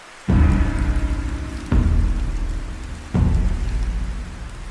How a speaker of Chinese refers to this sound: 即便现在还在下雨，被好奇心诱惑的小光，趁着妈妈不注意的时候，独自一个人跑进了森林里。